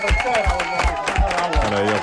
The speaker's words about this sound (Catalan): aplaudiments i tot, Sí, avui. Sí, molt forts.